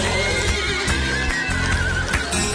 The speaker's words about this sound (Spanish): Perfumados salve en la comandancia y en la iglesia del Rocío, revuelo de de casco y de relincho.